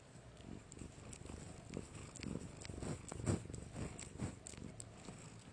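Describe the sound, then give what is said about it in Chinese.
A cat purrs steadily in a low, rumbling drone while licking a bedsheet; soft, irregular licking and rustling sounds of its tongue on the fabric come and go over the purr; no one speaks. “一边舔一边呼噜。”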